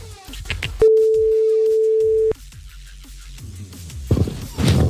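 A single steady telephone ringback tone sounds for about a second and a half, loud and clear, then stops unanswered, leaving a murmur of background noise with faint voices toward the end.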